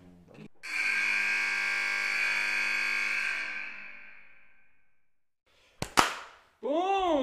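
A couple of quick, sharp hand claps from one person, coming right after a long steady electronic buzzing tone fades out, with a warbling tone starting just afterward.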